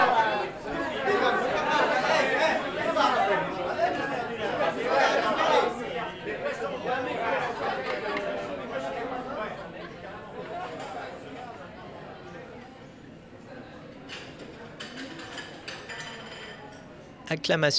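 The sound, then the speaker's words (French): A busy refectory hums with overlapping chatter and the clink of dishes and cutlery, the crowd noise easing slightly before a few harsh chair scrapes cut through near the end as people get up to fetch food containers from the serving table. “Le bruit dans le réfectoire augmente d'un cran avec les raclements de chaises.”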